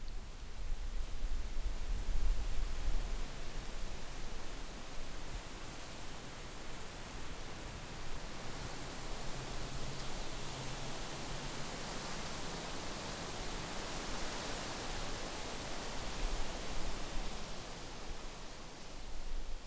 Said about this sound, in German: Das Rauschen der umtosten Eichenblätter hat nicht den sanften Nachklang der Linde